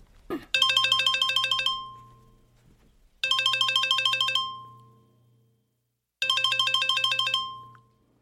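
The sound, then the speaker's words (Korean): A phone ringtone for an incoming call from an unknown number plays three times, each burst a bright, rapid warbling melody lasting about two seconds and fading out, separated by short silences. No one speaks. “모르는 번호다. 광고나 장난 전화가 아니라면 여보세요.”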